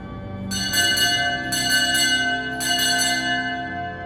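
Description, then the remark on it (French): Church bells of Notre-Dame ring out loudly for the 18:15 mass in a steady, overlapping peal, with bright metallic strikes in repeating groups over a sustained humming resonance, no voices present. “La messe de 18h15 a sonné et Georges a déjà disparu comme il était apparu.”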